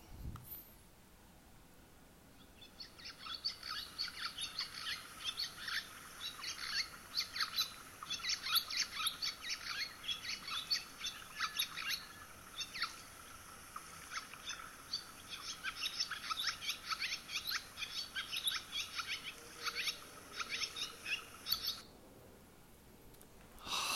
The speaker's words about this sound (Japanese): 主にこの時期にですね、えー、夏鳥渡り鳥ということで日本にやってくるわけですけども分かったでしょうかいきますよ一緒にせーのツバメですツバメ